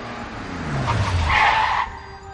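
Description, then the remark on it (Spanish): A car engine revs and climbs in pitch as the vehicle pulls away, setting off on a trip from San Sebastián de los Reyes in the north of Madrid, with a brief squeal of tires in the middle before the sound eases off. No one speaks. “Pues montense en el coche con nosotros que comenzamos el viaje en San Sebastián de los Reyes.”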